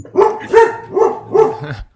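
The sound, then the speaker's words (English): Two dogs, Darcy and Waylon, bark in a steady run of about four or five loud barks, evenly spaced and overlapping slightly, with no talking over them. “And so we've got two dogs helping us this week. Yeah. And who knows what they're barking at right now?”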